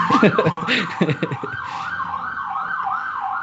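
A police patrol car siren wails in fast, repeating rising-and-falling cycles, loud, as the car passes, continuing steadily to the end after brief voices at the start.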